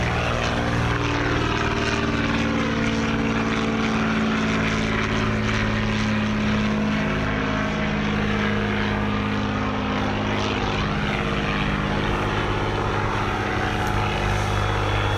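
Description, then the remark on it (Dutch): An old propeller airplane engine drones loudly and steadily throughout, a continuous rumbling throb with no voices or pauses. “Dit geluid is oude luchtvaart, jongens. Oude luchtvaart.”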